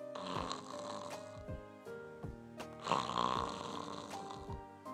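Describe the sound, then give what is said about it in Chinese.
Heavy, rattling snores of a hibernating bear rise and fall in a slow repeating rhythm, each long, rough inhale rumbling loudly with a low, buzzing tone. No one speaks. “听着一阵粗重的打鼾声。”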